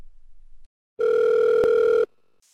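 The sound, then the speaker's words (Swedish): A single steady telephone tone as a caller phones in sounds for about a second after a brief low rumble, a sustained electronic beep with a clear pitch, loud, then stops abruptly into near silence. “Här har ni Peter som ringer in.”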